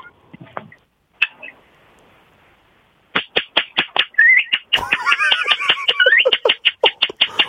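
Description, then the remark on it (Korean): A person whistles and chirps in imitation of the birdsong of a bird heard in the mountains: rapid, sharp repeated chirps building into a dense trilling warble with rising whistled notes, loud, after a few brief opening calls. “서비스로 새소리 한번 갈게요. 새소리.”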